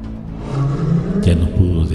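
A deep, menacing animal roar rumbles loud right behind the listener, building from a low growl into a harsher, raspier blast partway through.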